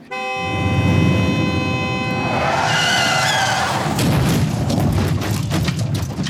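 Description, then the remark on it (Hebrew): A car driven by a 92-year-old man brakes hard on a winter night in January, its tires letting out a long, loud, wavering screech over a low engine rumble that lasts several seconds, with no one speaking. “רגלו קפאה על בלם המכונית, ומנסה להבין מאין בא אותו צליל שמעולם לא שמע במשך 72 שנות נהיגה.”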